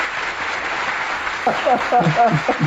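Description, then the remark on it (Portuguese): A crowd claps in a steady, dense wash of applause; about halfway through, loud voices rise over it, cheering or calling out as the clapping continues. “Primeiro de falar, porque eu quero essas palmas depois que você falar, por favor.”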